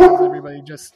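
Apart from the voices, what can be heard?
dog barking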